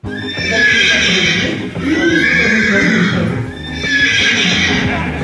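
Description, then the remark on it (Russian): Loud horse neighing repeats three times in quick succession, each whinny a bright, wavering cry, with a boomy, slightly distorted quality, blasted from a huge loudspeaker pointed upward inside a resident's apartment, heard throughout the apartment building. “В своей квартире житель держит э, направленную вверх огромную колонку, и оттуда раздается ржание.”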